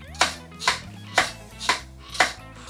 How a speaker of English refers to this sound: No, that's a pretty nasty sound your chair makes there. I, don't, I don't know what you're talking about. It sounds like a headboard to me.